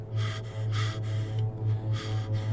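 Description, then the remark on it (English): A voice imitates heavy, raspy breathing as if over a phone line, with several slow in-and-out breaths in a steady rhythm over a constant low electrical hum. “I picked it up, and we started talking, but not even 10 seconds later, I could hear breathing through the phone.”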